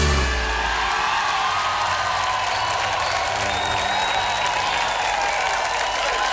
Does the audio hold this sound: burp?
no